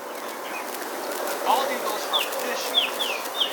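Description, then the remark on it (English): Several short, high bird chirps ring out up ahead, coming in quick succession near the end over a steady, noisy outdoor background. “Oh, I see birds up ahead.”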